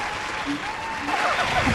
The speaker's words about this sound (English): Wait. Do you hear that? What is that? That, my dear, is the unmistakable sound of applause. Applause? But from what?